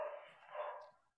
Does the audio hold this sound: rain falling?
no